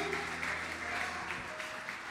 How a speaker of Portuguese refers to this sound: Aplauda bem forte ao Senhor.